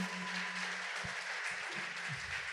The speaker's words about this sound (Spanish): ¡Wow! ¿Por qué no le damos un fuerte aplauso a Dios?